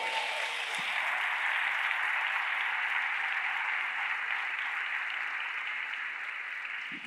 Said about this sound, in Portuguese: Dá um glória a Deus aí, aplauda o nome de Jesus, meu irmão.